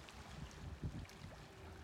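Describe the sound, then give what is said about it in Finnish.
A soft, steady rush of sea surf with a low wind-like rumble, continuous in the background and swelling slightly at moments, heard from rocks by the sea on a sunny, warm day of about 23 degrees. No voices are heard. “Ja meri kohisee tuossa taustalla.”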